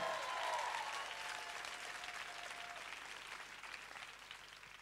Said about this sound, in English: Somebody give the Lord a clap because you're going to get a break. Come on, clap. Хайде хора, ръкопляскайте.